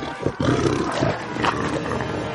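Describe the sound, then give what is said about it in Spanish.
A warg beast roars loudly and continuously as it attacks, a deep growling roar with harsh rasping texture that surges after a brief opening snarl, no voices present. “La enorme hiena le ataca.”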